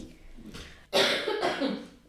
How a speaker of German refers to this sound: ja, ich bin ein bisschen erkältet. Tut mir leid, wenn ich hier im Hintergrund huste.